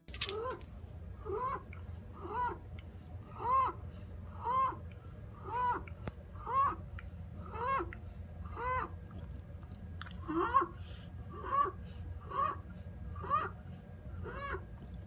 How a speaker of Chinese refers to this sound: 嗯，然后或者是有一些像呃，我们叫 strider，它是比较高频的声音，像这样子。